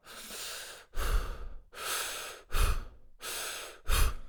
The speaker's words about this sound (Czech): Jak můžete slyšet, tak ten nádech je docela rychlej a výdech není úplně do konce. Že prostě ne, nevydechnete, nevydechnete ten vzduch eh, všechen.